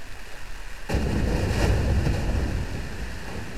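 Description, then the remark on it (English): A sudden deep rumble starts about a second in and rolls on steadily, low and muffled, as a glacier calves and a block of ice falls, with a broad wash of noise over it and no voices. “This is called calving. If you're listening to this podcast through headphones, you'll be able to hear it better because it's a low, subtle rumble”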